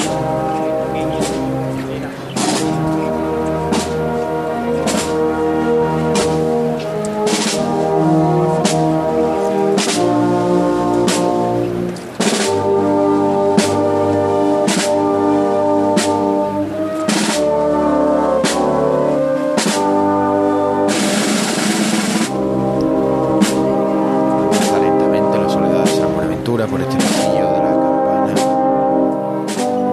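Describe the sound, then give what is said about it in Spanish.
A brass band plays Abel Moreno's slow, solemn march Soledad Franciscana, accompanying the paso of the Soledad de San Buenaventura along the central aisle, with sustained chords from the horns over a steady drum beat. The music is loud and continuous, with sharp percussive accents and no voices. “Y ahora sí suena la marcha de Abel Moreno, Soledad Franciscana, que va a ser la que acompañe por el pasillo central el paso de la Soledad de San Buenaventura.”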